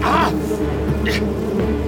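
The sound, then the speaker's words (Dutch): A swarm of wasps buzzes steadily around a man's head after slipping in through a ventilation grille, a dense droning hum that holds for the whole couple of seconds with slight wavering in pitch. “maar de wespen bleven maar naar binnen glippen via het ventilatierooster. Een zwerm zoemde rond zijn hoofd.”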